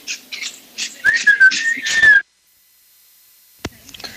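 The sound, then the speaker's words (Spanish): A loud, sustained human whistle, a mocking chiflido on the 'day of the whistle', holds a steady, slightly wavering pitch for about a second amid bursts of noisy, crowd-like hubbub, then cuts off into near silence broken by a sharp click. “Hoy que es el día del chiflido, le quiero mandar un saludo a Martín Orozco Sandoval.”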